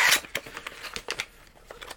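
Rustling and crinkling as a small, plain cardboard box holding a Raspberry Pi in a small plastic bag is opened, a burst of tearing at the start followed by irregular soft crackles and handling noises, with no talking.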